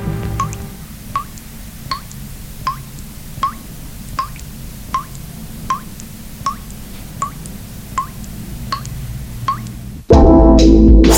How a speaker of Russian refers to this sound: все затихает, и слышно только, как из крана продолжает капать вода как символ бесконечности времени и пространства